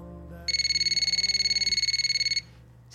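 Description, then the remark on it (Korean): A telephone rings as an outgoing call is placed, a rapid electronic trill, a fast pulsing tone at a steady pitch lasting about two seconds, over a low background hum and with no one talking. “복수하는 마음으로 그에게 전화를 걸었습니다.”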